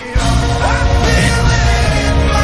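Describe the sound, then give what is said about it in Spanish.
A Mongolian band plays loud, dense music while voices shout and sing in Mongolian in a strained, gritty style, with sliding vocal lines over a steady, heavy instrumental backing. “Aguante el mongol, están cantando en mongol.”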